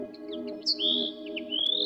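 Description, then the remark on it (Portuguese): A common linnet chirps and twitters in a quick, continuous series of high, bright notes with rising sweeps, over a steady low hum in the background. “À semelhança de outras aves, o pintarroxo comum faz várias posturas por ano, duas ou três nesta espécie a espécie a que hoje dedicamos atenção especial.”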